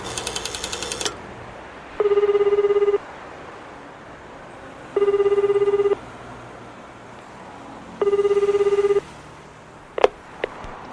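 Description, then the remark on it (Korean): A telephone rings three times in evenly spaced one-second bursts of a buzzing, mid-pitched tone. A short burst of dial tones comes at the start and a click at the end. “왜 이렇게 늦게 받아?”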